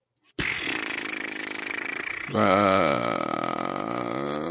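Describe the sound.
A voice imitates a seal with a loud, rough, guttural call held for about four seconds, turning more tonal and wavering in pitch about halfway through.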